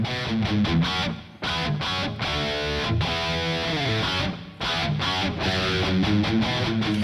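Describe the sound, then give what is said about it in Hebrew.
A loud, distorted electric guitar riff drenched in pedal effects, from a band's album released in 2014, played in choppy rhythmic bursts with brief gaps between phrases, backed by full band instrumentation and no voices. “זה גם האפקט על הגיטרה וגם הבחירה המדויקת ב...”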